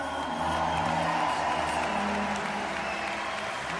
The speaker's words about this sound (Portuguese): fazendo uma saudação que foi saudada ou que foi aplaudida por mais de 12 mil pessoas. É, foi isto aqui.